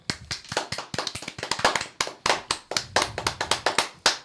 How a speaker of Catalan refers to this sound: Molt bé, aplaudiments.